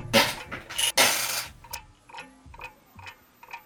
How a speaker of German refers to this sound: Ja, irgendwas klackert wohl in der Küche.